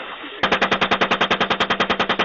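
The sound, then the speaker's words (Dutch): Sustained automatic gunfire from the leaked video Collateral Murder, showing the American army shooting civilians in Baghdad: a rapid, steady burst of about twenty evenly spaced loud shots, each one sharp and punchy, following a brief stretch of noisy background hiss. “En daarin is te zien hoe het Amerikaanse leger onschuldige burgers in Bagdad neerschoot.”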